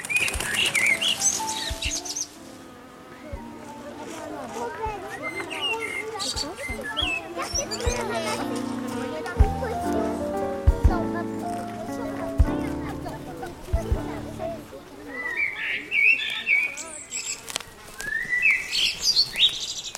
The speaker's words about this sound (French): tu l'entends, comme nous, non le merle, oui, merci, je l'entends